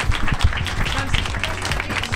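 An audience applauds a guest steadily, dense overlapping claps forming a continuous crackling wash at even loudness throughout, with faint voices murmuring underneath.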